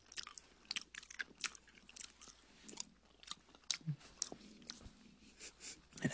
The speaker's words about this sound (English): So you're gonna hear us eating a lot of Skittles.